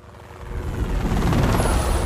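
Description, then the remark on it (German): A helicopter on a flight over Helgoland roars overhead, its rotor chop a heavy, rapid thudding that swells louder over a couple of seconds, with no voices. “Nach seiner Rückkehr vom Hubschrauberflug über Helgoland wurde mein alter Bundeswehrschleifer und ASB-Kollege festgenommen.”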